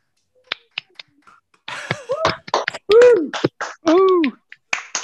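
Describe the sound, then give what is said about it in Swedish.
Sparse, choppy applause from many people on a Zoom video call: a few isolated claps and snaps, then whooping, cheering voices with swooping pitch, cutting in and out as Zoom mutes them while everyone makes noise at once. “eh, eh det, ni, det ni hörde där var i alla fall en massa människor som applåderade,”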